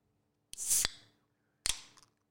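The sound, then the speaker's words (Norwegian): A can of Northern Norwegian Christmas beer is cracked open: a sharp snap with a brief fizzing hiss, then a second, shorter crack and hiss about a second later. No one speaks. “God lyd av boksen.”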